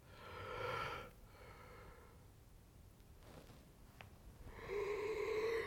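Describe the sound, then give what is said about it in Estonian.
A drawn-out yawn: a breathy, voiced groan, a quiet pause with soft breathing, then a second stretched, rising vocal moan as it finishes. “ma ei tea, miks mul haigutus praegu lambi peale tuli nii igav rääkida sinuga”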